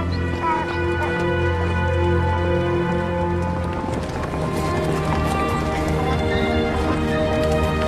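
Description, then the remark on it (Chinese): Hooves of a donkey being driven clop in a quick, steady rhythm, their sharp knocks riding over a sustained, droning musical background that stays level throughout. “哎呦，这谁家的驴啊？”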